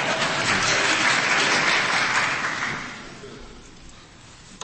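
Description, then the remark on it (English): A courtroom audience claps in a dense, steady burst of many hands for about three seconds, then the applause thins and fades away to quiet. “The courtroom will be cleared if there's any more clapping.”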